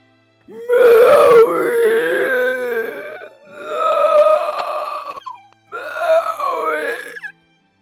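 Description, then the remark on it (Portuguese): Three loud, drawn-out guttural grunts, each a rough, low groaning burst with short pauses between, seemingly a person's voice imitating a creature's growl. “Vocês escutam um grunhido um som característico.”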